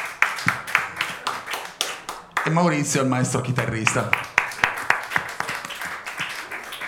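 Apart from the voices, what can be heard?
audience applause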